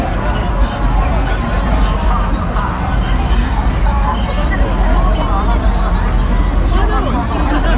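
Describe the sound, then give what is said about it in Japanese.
Dense crowd noise at the busy pedestrian crossing in front of Shibuya Station, crowded with people waiting to cross while police direct traffic: a steady, loud hubbub of many overlapping voices with constant chatter and a low rumble of traffic underneath, never pausing. “渋谷駅前交差点横断待ちの皆さんにお願いしますご覧の通り大変多くの方で混み合っています警察官は混雑による事故防止のため交通整理を行っています”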